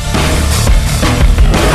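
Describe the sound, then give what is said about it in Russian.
Loud, dense burst of fireworks explosions during a fireworks battle in France, amid unrest in several cities; several sharp bangs crack out over a constant roaring wash of noise, chaotic with no clear rhythm. “Ну, а это правда на фейерверках э, и о битве фейерверков э, в, во Франции.”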